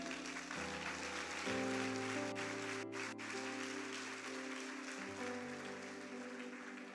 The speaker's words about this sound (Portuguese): Pode aplaudir.